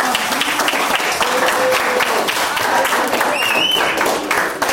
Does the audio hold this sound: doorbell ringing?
no